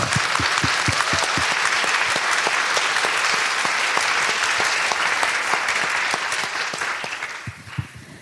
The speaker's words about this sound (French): Oui, bravo On peut l'applaudir.